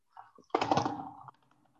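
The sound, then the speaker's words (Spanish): A quick flurry of rapid taps on a desk, fairly loud, rattling for under a second as an improvised drum roll, then stopping abruptly. “No, es un redoble de tambores.”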